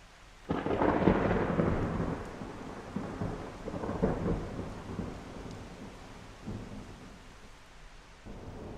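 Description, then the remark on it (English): A thunderstorm: a loud, rolling thunder crash breaks at the start and rumbles on, with a second swell midway, over a steady wash of rain. No one speaks. “Lightning strikes United States 20 million times per year.”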